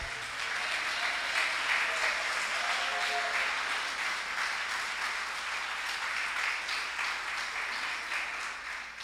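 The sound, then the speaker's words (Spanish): An audience applauds steadily for the King of Glory, a dense wash of many hands clapping that holds evenly for several seconds, with faint voices mixed in beneath it. “Denle un aplauso al Rey de Gloria.”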